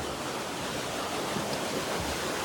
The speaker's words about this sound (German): Man hört auch schon das Wasser fest rauschen, das ist natürlich jetzt Schneeschmelze. Dementsprechend viel Wasser hat die Klamm natürlich momentan. Deswegen rauscht es auch ziemlich.